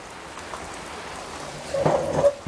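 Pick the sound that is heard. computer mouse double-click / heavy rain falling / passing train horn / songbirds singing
heavy rain falling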